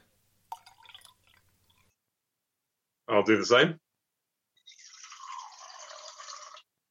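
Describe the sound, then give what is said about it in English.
Water pours steadily into a glass jar for a couple of seconds, a bright splashing fill, after a few quiet clinks and a brief spoken remark. “Okay, so I've got a jar and I'm going to fill that up with water.”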